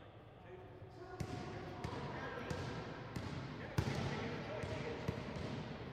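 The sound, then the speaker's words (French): A basketball bounces steadily on a hard court, sharp thuds coming roughly every half second over a busy background of crowd murmur and indistinct voices, at a university team's basketball game in the suburbs of Boston in 1977. “Rick assiste à un match de basket de l'équipe de son université.”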